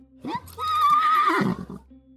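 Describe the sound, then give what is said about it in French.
A single horse whinnies loudly, a long quavering neigh that rises, holds, then trails off into a few breathy snorts, with no one speaking. “Les chevaux dans l'écurie.”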